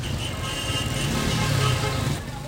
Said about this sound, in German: Fahrradfahren in Kairo, einer Stadt, die berüchtigt ist für ihren chaotischen und auch nicht ganz ungefährlichen Verkehr.